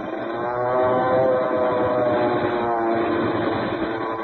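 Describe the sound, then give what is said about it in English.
Loud, sustained roar of airplane engines with a whining harmonic drone, holding steady for a few seconds as a plane dives on other planes in an aerial dogfight high over Lake Tahiba. No one speaks. “Hey, look, the second plane has made a dive on them.”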